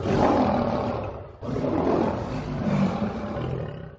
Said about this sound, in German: Gut gebrüllt, Löwe.